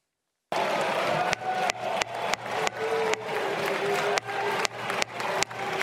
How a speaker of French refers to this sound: Entre huées et applaudissements, regardez ce moment.